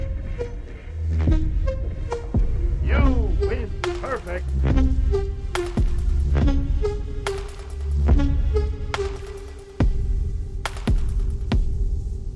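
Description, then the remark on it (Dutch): Quick, sharp tapping footsteps from a tap-dancing video game character on the left side of the screen, one of two characters shown, clicking in irregular bursts over a busy bed of tonal game music and low rumbling effects. “Maar je hoort nou dat mijn karakter aan de linkerkant... die staat een beetje te tapdansen, eh, zeg maar.”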